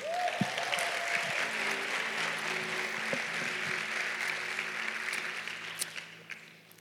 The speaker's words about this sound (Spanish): ¿Cuántas mujeres dan un aplauso al Señor?